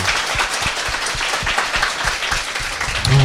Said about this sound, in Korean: 오늘 여기 자리가 좀 불비한 관계로 네. 바닥에 네. 이렇게 앉으셔가지고 저희 이야기를 또 끝까지 귀 기울여 주신 여러분께 정말 진짜 네. 박수 한번 드리고 싶습니다.